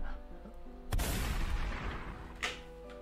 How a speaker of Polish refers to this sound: słyszysz głośny strzał i zwierzę spanikowane gdzieś, tak jak e, zaczęło cię atakować, ucieka w ogóle w innym kierunku.